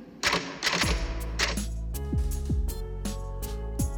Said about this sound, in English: We're gonna make a new rule. Whenever I'm in here, you hear me typing.